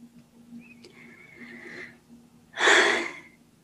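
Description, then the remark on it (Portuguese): A single deep, audible breath drawn in sharply, fairly loud, following a few seconds of quiet background hum; no one speaks. “Fiz assim uma, uma respiração profunda, porque este tema entusiasma muito falar.”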